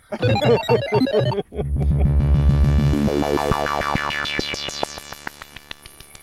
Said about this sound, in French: Bon, après euh, après cette interlude musical, euh, lumineux, brillant, euh, etc.